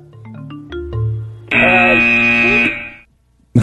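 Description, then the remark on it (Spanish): A quick run of stepped musical tones leads into a loud, harsh doorbell buzzer that drones steadily for about a second before cutting off, followed by a brief silence. “Eh, ¿Qué le dijo el timbre al dedo?”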